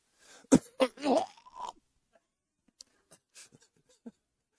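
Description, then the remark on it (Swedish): Close-up mouth noises of someone chewing and swallowing: a few loud, throaty gulping bursts in quick succession, then quieter scattered wet clicks and smacks trailing off, with no talking. “Svalde det där.”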